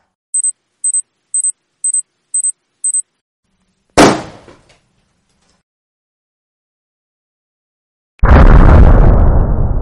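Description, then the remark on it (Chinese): Six short, high-pitched beeps tick by in a steady rhythm, then a balloon held directly over a candle flame bursts with a single loud, sharp bang that quickly fades. After a few seconds of silence, a dense, steady rushing noise begins. “我们先来试一下，如果直接把气球放在火焰上面会发生什么？给大家十秒钟的时间把音量调低，我们的实验马上就要开始了。”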